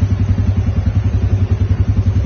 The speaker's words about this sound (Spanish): estas son las motos en las que ustedes nos están viendo. Marca Honda, totalmente negra, chaparritas y son motos económicas.